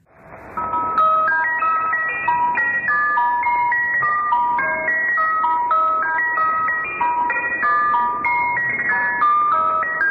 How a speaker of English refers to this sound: and it features a music box version of the Swedish Rhapsody number one followed by a female child's voice.